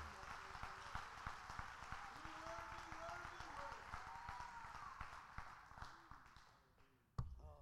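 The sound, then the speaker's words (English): An audience claps together in Jesus' name in a steady, sustained patter of many hands, with voices singing and calling out over the clapping until it drops off near the end. “Let's clap his our hands in Jesus' Jesus' name.”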